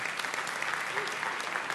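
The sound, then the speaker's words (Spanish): An audience claps together in a steady, dense patter of applause, a continuous wash of many hands with no talking over it for the brief stretch. “Si quieres aplaudir, puedes hacerlo.”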